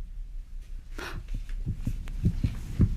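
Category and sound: sound effect, heartbeat thumping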